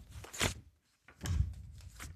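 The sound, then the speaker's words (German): Pages of a heavy encyclopedia being leafed through, with two crisp bursts of papery rustling and flapping separated by a brief pause. “guck mal, blättert mal hier im”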